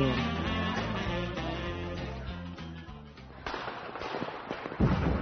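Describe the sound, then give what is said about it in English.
Music plays for a few seconds, then gives way to a series of sharp crackling pops and bursts of Christmas fireworks, ending with one louder bang. “Oh, you can see the fireworks better over there.”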